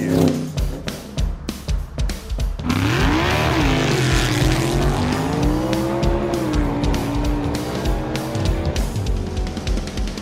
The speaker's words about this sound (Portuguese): Bem, meus amigos, e para darmos a largada nesse nosso especial off-road, eu vou pedir pro Alex Rufo já colocar o carro na estrada e acelerar de verdade, né? Com muita poeira. Acelera aí, meu caro Alex.